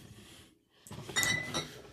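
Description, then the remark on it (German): Blonde wheat beer is poured from a bottle into a glass, the yeast from the bottle going into the glass too: a brief fizzy, splashy pour with a few bright clinks of glass against glass, and no one speaking. “So, jetzt haben wir auch die Hefe im Glas und äh, in der Flasche und die kommt jetzt mit ins Glas.”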